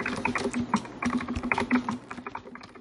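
Rapid, uneven clicking of keys on a computer keyboard, fairly loud, with a steady low hum underneath and no voices.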